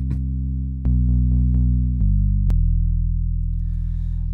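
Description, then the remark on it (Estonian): A short burst of loud, buzzy electronic music: sustained distorted chords that shift to new notes every second or so, with sharp attacks at each change and no voices. “kohe hakkab ja siis äh, naudime seda väikest teost siia algusesse”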